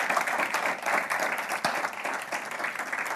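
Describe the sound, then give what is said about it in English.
Steady applause from an audience in Asbury, a clap of praise for the speaker's wife, two daughters and members present, many hands clapping in a dense, sustained wash that stays at an even level for a few seconds. “Let's give them a hand, clap of praise.”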